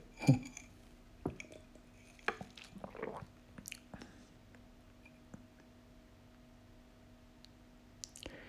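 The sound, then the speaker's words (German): Someone sips coffee from a cup: a light clink of the cup, then a few soft, brief slurping and swallowing sounds over a faint steady hum, with no talking. “Äh, erstmal noch einen Schluck Kaffee nehmen, würde ich sagen.”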